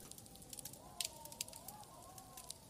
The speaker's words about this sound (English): We have a cozy fire going for you in the background, as well as a light blowing winter wind to help you sleep.